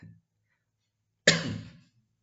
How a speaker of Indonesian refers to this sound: Aduh, mohon maaf nih. Uh, masih agak batuk-batuk ya. Mudah-mudahan diberikan kesembuhan.